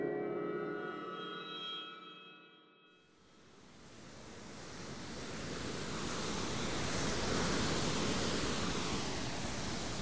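Steady, gentle sea waves wash and surge against the hull of the ship Jungle Love Caribbean on the night of 28 April 2010, around 2:50 a.m., a broad hissing swell that builds and recedes, following a few seconds of sustained tonal hum at the start.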